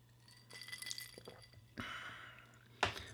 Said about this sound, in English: And again, let me have a quick sip of this delicious whiskey.